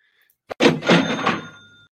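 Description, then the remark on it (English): A cash register sound effect: a sharp mechanical click, then a clattering drawer and a bright bell ring that fades out over about a second. It is loud and plays with no talking. “I mean, if you've heard the cash register button there, that's all Kansas has done”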